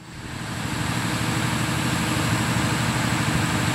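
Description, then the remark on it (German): A power generator in the rainforest, used for science, runs steadily with a loud, droning low hum and a constant rattling buzz, fading in briefly at the start and then holding an even level with no voices. “ist das ein Generator? Ja.”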